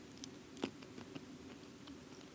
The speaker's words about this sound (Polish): Dobra, to ja też próbuję, bo tu mam coś mhm. przygotowane, widzę. Ja będę chrupać.